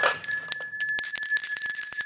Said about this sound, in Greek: να ηχήσουν τεράστιες καμπάνες, όχι αυτά τα απλά καμπανάκια που έχω εδώ.